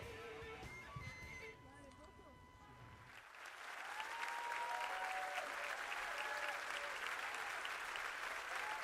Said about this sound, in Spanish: Esos aplausos de fondo eh, para las toses y para Quique Díaz.